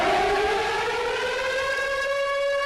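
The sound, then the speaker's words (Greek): A loud, sustained air raid siren in the city of Lviv wails steadily with a slow rising pitch, its harmonic tone continuing without pause and no voices over it. “Πριν από λίγο είχαμε και πάλι τον ήχο των σιρήνων εδώ στην πόλη Λβίβ.”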